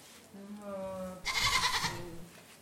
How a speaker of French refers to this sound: C'est des, des, mâles. Hein. C'est pas des, chèvres euh, femelles, c'est des mâles. C'est des boucs.